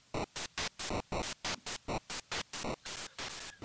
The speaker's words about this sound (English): A limitation of the noise channel, though, is that if it was used on multiple channels, you could still only have one pitch of noise playing at any given time, which didn't make it very practical to use twice.